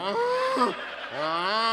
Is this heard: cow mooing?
yes